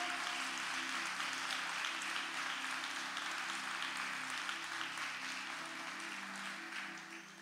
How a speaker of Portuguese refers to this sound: Aleluia. Pode aplaudir o Senhor.